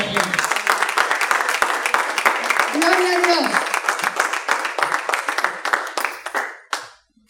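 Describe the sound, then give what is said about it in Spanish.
A church audience, on its feet, bursts into loud, sustained applause, dense clapping filling the space for several seconds before fading out, with a voice briefly calling out over it. “¿Cuántos dicen amén? un fuerte aplauso”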